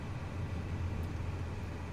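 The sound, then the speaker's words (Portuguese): Steady low rumble inside a moving car with sport suspension, set slightly lower, a constant droning road and engine noise with a faint hiss on top, with no voices and no change in level. “E, e, esse carro que a gente está tá andando, como ele tem suspensão esporte, né, um pouquinho mais baixo, é, é chato de, de lidar com ele no dia a dia.”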